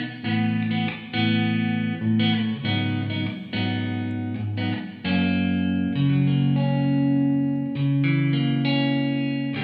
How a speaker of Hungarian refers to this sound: ez borzasztó szobába felvett izé gitár